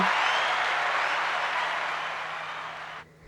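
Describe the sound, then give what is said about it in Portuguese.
A burst of steady, dense applause from many hands, loud, tapering slightly over about three seconds before cutting off abruptly into near silence. “Aplausos para vocês, meu bem.”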